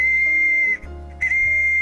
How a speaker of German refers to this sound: Statt eines Schweifs ragte dem Pferd eine voll funktionstüchtige Pfeife aus dem Hintern.